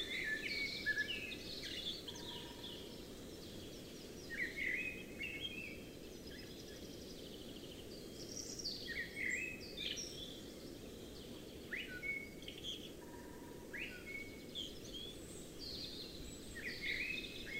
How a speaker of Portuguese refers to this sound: Como esse melro preto, por exemplo falando conosco do alto de um pinheiro.